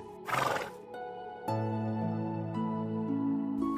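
A stallion whinnies loudly in a short, shaky burst, then a sustained tonal backdrop of music-like harmonics carries on steadily for the rest of the moment, with no talking.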